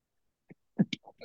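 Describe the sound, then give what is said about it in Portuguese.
A single sharp sneeze, a quick catch of breath followed by an abrupt burst, then a few soft trailing noises in an otherwise quiet space. “Desculpe. É... Saúde.”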